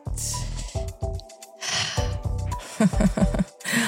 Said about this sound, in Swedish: alltså, ska alltid andas i micken som ett slisk. men jag, jag försöker alltid ta ett djupt andetag för att jag tvingas sitta i den här studion med dig.